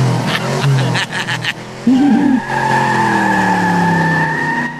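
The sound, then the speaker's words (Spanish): A car engine revs hard as the tires let out a long, high squeal, the sustained screech ringing steadily over the engine noise after a brief burst of rattling at the start. “Ando toda nerviosa, como nunca manejo. Ando ahorita toda nerviosa. Déjale acelero más.”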